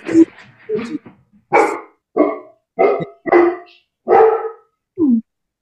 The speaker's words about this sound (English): am i upsetting the dog am I upsetting him